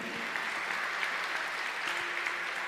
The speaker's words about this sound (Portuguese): Pode aplaudir o Senhor que é bom. Amém?